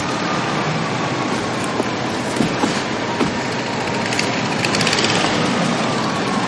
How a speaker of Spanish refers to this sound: saca con desgana ladrillos de la cinta transportadora y los pone en los secadores.